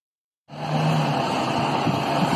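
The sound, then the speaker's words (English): A convoy of heavy trucks carrying nuclear waste, including a 157-ton nuclear fuel cask from West Valley, rolls through a neighborhood, a loud, steady wash of engine rumble and road noise that starts abruptly after a brief silence and holds without pause. “It's nuclear waste truck and caravan rolling through my neighborhood.”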